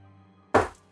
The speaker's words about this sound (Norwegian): Han dunker i skrivebordet